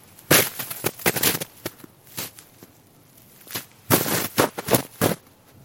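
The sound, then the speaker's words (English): Crunchy footsteps in short, irregular bursts of two or three steps, each group followed by a pause, as a person walks hesitantly over dry ground imitating the stop-and-go gait of an animal such as a squirrel, fox or raccoon. “I'll take two or three steps and I'll stop.”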